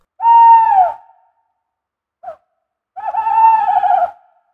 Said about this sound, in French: Et euh, au moment où il vous demande si a priori vous avez tout ce qu'il vous faut, euh, bah, vous entendez effectivement euh, un énorme ululement.